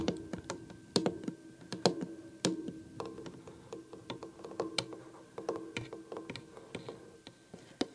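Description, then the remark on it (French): Soft, irregular tapping of fingertips, done very gently, on a small wooden tea box full of tea bags: many light clicks in uneven bursts with a faint hollow resonance, alone without any talking. “Et alors là, par exemple, vous pouvez imaginer une petite boîte à thé en bois qui contient plein de sachets de thé. On ne va pas l'ouvrir tout de suite. On va tapoter dessus tout doucement.”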